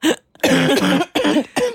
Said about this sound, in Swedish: Jag var så din hosta. Ja. Men den är så hemsk. Den är som en sån riktig gubbahosta. Oh. Nerifrån magroten. Alltså den är så otrevlig. Verkligen. Men är det, gör det ont när du hostar?